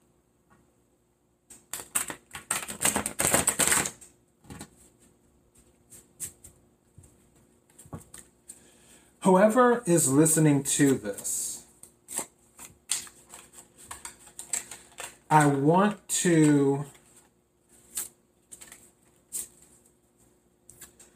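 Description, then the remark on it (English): Crisp papery riffling and snapping of stiff Tarot Grand Luxe tarot cards being shuffled, a dense burst early on followed by scattered flicks and taps, with someone talking briefly in between. “just pull a tarot card to see, and also I need to work on my shuffling too”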